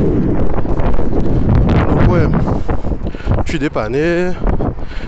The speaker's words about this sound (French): Désolé pour le vent